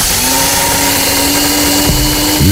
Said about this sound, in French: La réponse était un moulin à café, un grinder à café, la petite machine, là.